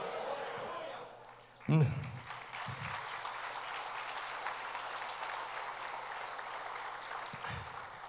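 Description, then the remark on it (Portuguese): An audience breaks into loud, sustained applause for Jesus after a brief moment of murmuring, the dense clapping continuing steadily to the end with a few voices calling out over it. “Quando você der uma salva de palmas, Jesus dá com vontade.”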